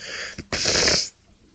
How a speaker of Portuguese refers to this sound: Juro, se aguentar tipo aqui a fungar, mas depois de ter atado o nariz parece que continuo com alguma coisa, mas não quero voltar a assoar